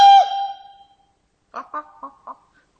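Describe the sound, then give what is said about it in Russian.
A rooster crows: a loud, ringing opening note that fades, then after a short pause four clipped, evenly spaced syllables. No one speaks over it. “І вось трынаццаты пеўнік вырашыў покинуть птушыны двор. Кукарыку!”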